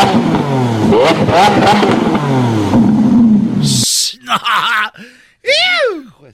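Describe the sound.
A Lamborghini sports car engine revs loudly, its pitch climbing and dropping over several seconds, then cuts off, followed by a few short vocal sounds, likely a voice imitating the revs.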